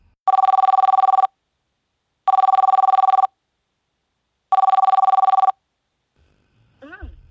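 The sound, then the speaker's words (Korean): A phone ringback tone sounds three times as a radio show places a call to a listener, each a steady buzzing tone about a second long separated by two-second pauses, loud and clear, followed by a brief rustle and the start of a voice. “그리고 지금 전화 연결 할수 있어? 전화 연결 이쪽으로. 아 언니한테 전화해서 할까?”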